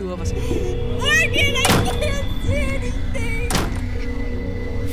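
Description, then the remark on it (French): A door slams shut twice, two loud, heavy thuds a couple of seconds apart, while voices keep talking underneath. “Entre 1h35 et 6h du matin, la porte a claqué sans relâche.”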